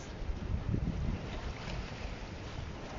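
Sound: ocean waves with wind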